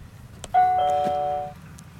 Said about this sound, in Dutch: Een hele moderne bel.